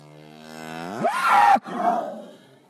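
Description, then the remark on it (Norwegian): A cow bellows loudly, calling for its calf to come: one long call that starts as a low, tonal moo, rises in pitch and turns into a harsh, raspy roar, breaks briefly, then trails off. No one speaks. “Og hvis den ikke kommer, så står hun og roper på den. Rauter at den skal komme.”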